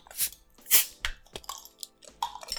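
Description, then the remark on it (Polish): Bottles being opened with an opener found in a drawer: a few sharp, crunchy clicks and scrapes in quick irregular succession, with short bright hissy bursts and faint rattling in between, and no talking. “Dobra, to co? Odliczamy, otwieramy.”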